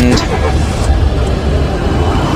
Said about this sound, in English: You can't just drive off. You're stealing Jimmy's car.